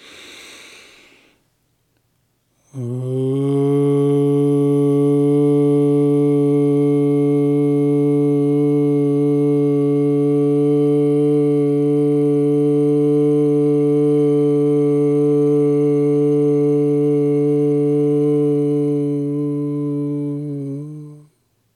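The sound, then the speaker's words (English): After a short inhaled breath, a single voice chants a long, steady low "mm" sound to locate the third eye in the middle of the forehead, loud and unwavering for about eighteen seconds before stopping. “Now we locate the third eye in the middle of the forehead by chanting the mm sound.”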